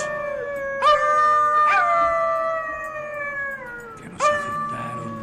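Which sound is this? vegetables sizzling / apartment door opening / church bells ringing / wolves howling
wolves howling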